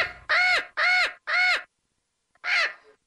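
A crow caws three times in quick, evenly spaced succession, pauses, then gives one more harsh caw. The calls are loud, with no voices.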